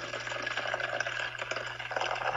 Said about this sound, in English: Uh, you're pouring that really loud. Um, kind of annoying, so, but that's a okay.